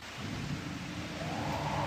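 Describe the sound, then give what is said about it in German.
An original, old-fashioned mechanical rain machine in a theatre hall in Peine, Germany, makes a steady, dense rushing patter like heavy rain, not played through loudspeakers, with a low rumbling undertone throughout; continuous and fairly loud, with no voices. “das sind Blitzeinschlag, Donner, Regen und Windmaschinen, die teilweise zwar mit einem Schalter betätigt werden können, aber ganz oldschool funktionieren”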